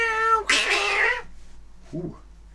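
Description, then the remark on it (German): A cat meows loudly in a long, drawn-out, strained cry, followed after a short pause by a softer, brief second meow. No one speaks. “Genau, die Katze.”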